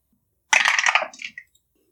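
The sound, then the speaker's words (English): Dice clatter and rattle briskly across a hard surface for about half a second as two players roll for perception, then a few lighter clicks as they settle. The sound is moderately loud, with no talking. “Um, could I have both of you go ahead and roll perception?”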